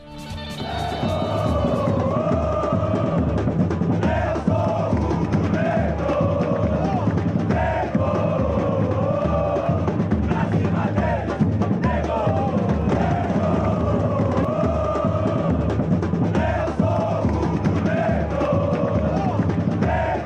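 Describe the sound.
A huge crowd of Esporte Clube Vitória football fans in Salvador sings an axé song together, loud and continuous, their massed voices rising and falling in a steady chanting rhythm with a roaring stadium echo.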